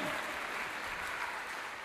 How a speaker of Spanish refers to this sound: ese aplauso al que vive por los siglos de los siglos. Y es Dios.